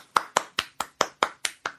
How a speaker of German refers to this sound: Wir klatschen im Podcast nicht. Ich schon. Ich mag das nicht. Das haben öfters mal schon welche gemacht.